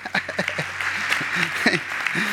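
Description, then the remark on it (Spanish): An audience applauding in praise of Christ, a dense, steady wash of clapping that fills the whole moment, with voices calling out over it. “Denle un aplauso a Cristo.”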